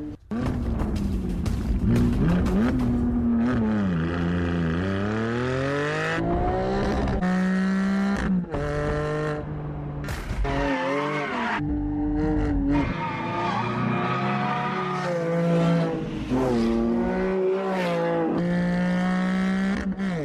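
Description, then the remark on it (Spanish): A GT4 sports car engine revs hard, its loud, throaty roar sweeping up in pitch and dropping back repeatedly as it climbs through the gears, with no voices. “Y ahora quiero que escuche cómo suena este GT4.”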